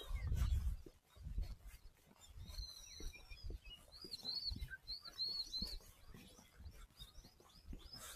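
japanese bush warbler singing

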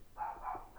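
dog barking

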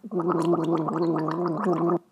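gargling water

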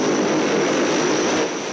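airplane engine

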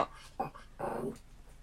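dog barking and whimpering

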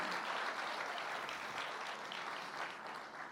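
audience applauding

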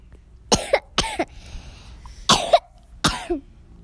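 coughing

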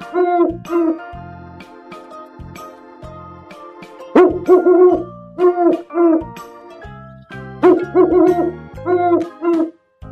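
owl hooting

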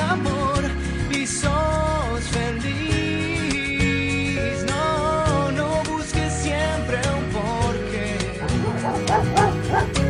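dogs barking and whimpering

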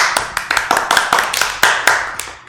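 hosts clapping hands

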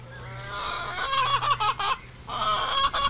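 chickens clucking

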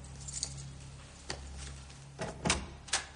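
door being closed

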